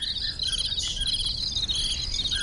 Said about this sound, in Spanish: Se acerca a una caja de plástico. ¿Y estos qué son? Grillos. ¿También los adoptan? No, los compran para alimentar a sus reptiles. La que abre la caja y mira el interior lleno de grillos.